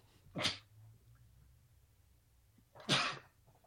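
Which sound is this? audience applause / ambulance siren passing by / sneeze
sneeze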